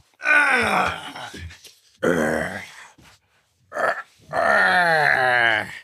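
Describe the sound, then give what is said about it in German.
A man with sore leg muscles from leg training lets out several drawn-out, strained groans of discomfort, loud, with short pauses between them and no words spoken. “das nur als Information, das hört man am Stöhnen, hat Muskelkater.”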